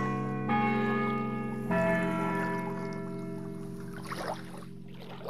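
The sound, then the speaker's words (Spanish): At dusk, a bell of the church of Isiar tolls two slow, resonant strokes, ringing the Angelus out over the sea. Each hum lingers and fades, and a soft watery splash follows near the end; no voices. “De repente, en la agonía de la tarde, sonaron las horas del reloj de la iglesia de Isiar, y luego las campanadas de Ángelus se extendieron por el mar como voces lentas, majestuosas y sublimes.”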